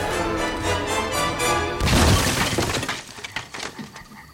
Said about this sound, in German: Dann brach die Kutsche urplötzlich aus und überschlug sich in einem hohen Bogen. Es war fürchterlich mit anzusehen, wie dieses Knäuel aus Pferden und Wagen mit einem großen Knall an einem der Bäume am Wegesrand zerschellte.